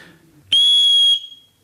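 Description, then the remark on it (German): A single loud, shrill blast from a referee's pea whistle with its ball stuck, giving a steady piercing tone with no trill, lasting about half a second before cutting off. “Und das ist der Nachteil von solch einer Pfeife mit Kugel, dass sie fest haften kann und dann nur noch ein spitzer Ton rauskommt.”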